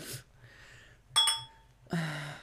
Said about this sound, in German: Ich muss anstoßen.